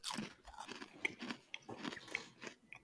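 Crunchy, wet chewing while eating spicy mango: a quick, irregular series of crisp crackling bites and munches repeating for a few seconds, fairly faint, with no talking over it.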